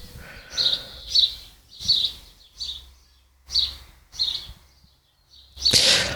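Birds chirp in a steady series of bright, high calls, about seven short bursts spaced roughly evenly, clear, with the last one loudest.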